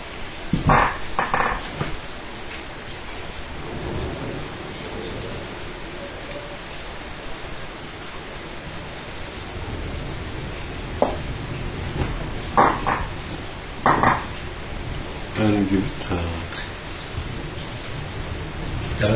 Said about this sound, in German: ist das Feuerwerk. Ja. das wir vorhin vermisst haben.